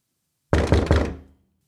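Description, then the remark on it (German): A frog knocks three quick, solid knocks on a wooden door, fairly loud, evenly spaced with a short resonant ring fading after the last one. No voices. “Da klopfte es wieder und der Frosch rief, Prinzessin, Jüngste, mach mir auf.”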